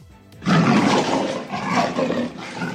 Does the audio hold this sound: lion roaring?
yes